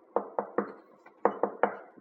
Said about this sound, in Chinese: 有一天，一只饥饿的狐狸准备出门猎食。当它在磨尖爪子的时候，突然被敲门声吓了一跳。